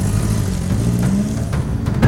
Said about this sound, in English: Rico gets in his van and pulls out into the road.